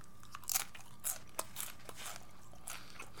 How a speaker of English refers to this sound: No, you know what I'm going to do? I'm going to have a bite of this nacho in commemoration. Let's go munch out.